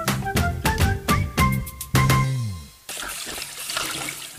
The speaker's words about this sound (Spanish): Mira, mami, me quedó limpiecito el plato. Te quedó impecable, mi amor. Pero no desperdices agua. Cierra la llave, por favor.